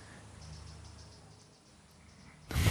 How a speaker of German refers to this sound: So ein komischer Vogel im Hintergrund, hörst du den? Ja.